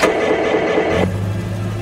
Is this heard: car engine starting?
yes